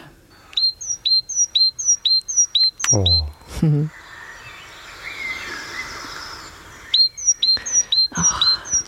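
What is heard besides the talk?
birdsong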